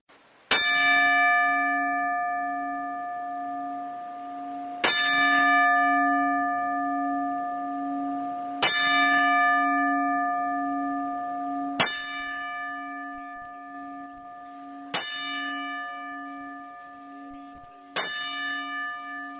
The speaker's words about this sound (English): But first, for uh, Joe Laurinaitis and Super D, Jamin, here are the 10 bells.